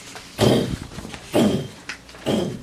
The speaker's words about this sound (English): The owner of the Thundering Footsteps makes himself known as the Nazi super soldier who Mr. Adventure faced when he defeated the Schwarzgeist the first time,